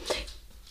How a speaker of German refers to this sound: der Hund bewegt sich heute sehr oft. Ihr werdet den hören im Hintergrund. Es tut mir leid. hat Hummeln im Arsch.